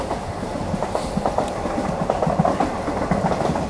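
A train rumbles past, its steady low roar layered with rhythmic clickety-clack from the wheels on the rails, loud and continuous with no voices.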